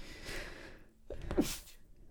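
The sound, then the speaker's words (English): A drawn-in, breathy inhale followed by a single sharp burst of a sneeze, loud and sudden, with no talking around it. “Excuse me, I think I'm going to sneeze.”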